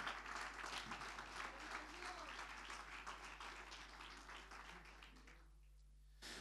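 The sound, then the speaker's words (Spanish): An audience at a church service applauding in praise to the Lord, a dense wash of many hands clapping that stays loud and full before tapering off near the end, with a brief burst returning at the close. “Fuerte ese aplauso de alabanza al Señor.”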